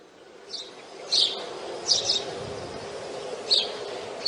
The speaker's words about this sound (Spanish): ¿Oyen los pájaros? Vamos a poner un poquito más fuerte los pájaros, por favor